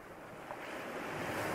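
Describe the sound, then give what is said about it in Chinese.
Ocean waves wash onto the shore in a steady, broad rushing hiss that swells gradually louder toward the end, with no voices present. “注意海浪的声音。”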